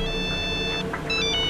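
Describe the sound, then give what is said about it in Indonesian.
A mobile phone ringtone plays from a phone in a bag, ringing again, a bright electronic melody of sustained tones that pauses briefly and then resumes, sounding alone without any voices. “Bunyi lagi nih HP.”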